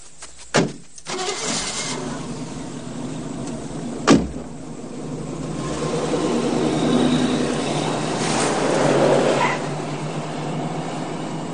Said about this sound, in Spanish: El niño le hace caso y sube al vehículo. Cierra la puerta y arrancan.